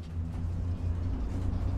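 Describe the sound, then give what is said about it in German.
A steady low engine rumble with a droning hum from riding inside a moving bus in Sierre (Siders), Valais, Switzerland, heading to the industrial quarter, continuous and moderately loud with no voices. “Mit dem Bus geht es jetzt weiter ins Industriequartier zur Eversys-Fabrik.”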